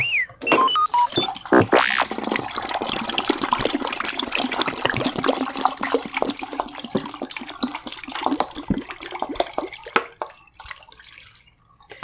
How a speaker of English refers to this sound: Okay, so I'm ready to pour in my bleach. Almost. I gotta, un- I gotta take the cap off of it first. Okay. The bleaching is also three minutes.